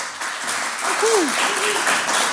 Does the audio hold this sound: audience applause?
yes